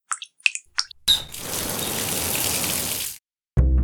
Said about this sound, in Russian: Отрезали рукав от своей самой нелюбимой колючей кофты, скотчем прилепили его к сливу и проверили, как стекает вода. К поврежденной трубе прибавился потоп.